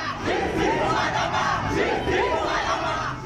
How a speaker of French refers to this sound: La foule l'acclame parce que la cause est juste. Justice pour Adama.